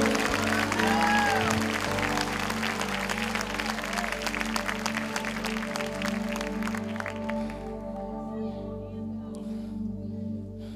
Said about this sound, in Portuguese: Alguém crê, deu o melhor aplauso aqui nesta manhã, é manhã de libertação.